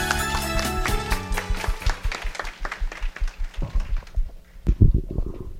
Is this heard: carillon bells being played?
no